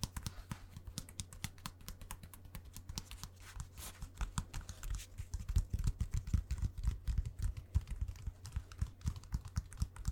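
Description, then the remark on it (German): Crackly rustling of thin packing paper in a shoe box as a shoe is taken out and presented, a steady stream of small crisp crinkles that grows busier and louder in the second half, with no talking. “Wenn ich nicht diese Papiere hier die ganze Zeit hätte.”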